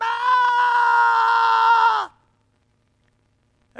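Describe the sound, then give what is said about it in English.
A single voice imitates people screaming at the sky: a long, wailing scream, loud, holding a steady, strained pitch for about two seconds before it drops off abruptly into silence. “They had a special day where everybody went outside and screamed at the sky.”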